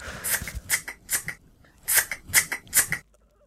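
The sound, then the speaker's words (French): A voice imitates scissors cutting with a series of crisp snipping clicks made with the mouth, about seven in two quick rhythmic bursts separated by a short pause, with no talking. “Non, c'est couper coupé. OK, c'est coupé. Couper quelque chose, OK?”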